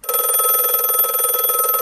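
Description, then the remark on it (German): A telephone rings for an incoming call from a withheld number, steadily with a bright, rapid bell-like trill, loud, sustained without pause for the whole short stretch and with no voices. “Ich habe nach mehreren Tagen ohne Rückmeldung einen Anruf mit unterdrückter Nummer bekommen.”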